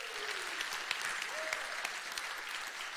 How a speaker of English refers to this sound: By the way, how many military uh, men and women do we have who at one point served or currently are serving? Would you raise your hand? Let me see you. Let's give these men and women a round of applause. We're thankful for you.